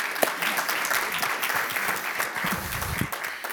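Sustained audience applause, a dense wash of many hands clapping steadily and fairly loudly throughout, with a few voices faintly murmuring underneath.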